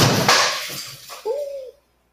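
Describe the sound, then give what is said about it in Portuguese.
A burst of small felt-tip pens falling and clattering onto a hard surface, fairly loud, a jumble of clicks and knocks lasting about a second before ending in a brief ringing tone. “É, é caiu umas canetinhas.”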